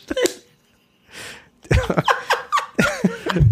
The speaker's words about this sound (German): Sag mal, ist das eine Störung hier oder schnarcht der Podcast?